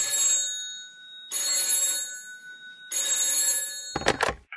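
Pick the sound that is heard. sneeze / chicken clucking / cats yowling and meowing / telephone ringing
telephone ringing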